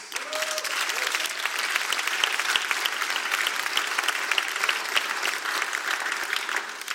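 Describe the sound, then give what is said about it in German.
A Pentecostal church audience in Germany applauds steadily for several seconds in thanks for the German health system, a dense, even patter of many hands clapping at constant loudness with no voices standing out. “Und äh, wenn du auch dankbar bist für dieses Gesundheitssystem, das wir hier in Deutschland haben, dann gib doch mal einen warmen Applaus.”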